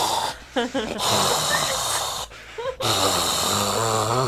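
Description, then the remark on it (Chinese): Someone imitates snoring with their voice, producing rough, rasping breaths broken by brief pauses, with other voiced sounds layered in, and the effect is steady and moderately loud throughout. “你这是打呼，这是打呼。”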